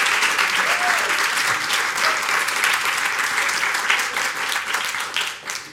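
An audience applauds steadily to welcome the speakers at an hour-long talk event, a dense wash of many hands clapping at once that stays loud throughout, then begins to thin and fade in the last moment.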